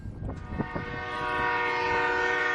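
A train rumbles past with some clanking at first, then its horn blares, a loud, sustained chord that swells and holds steady. No one speaks.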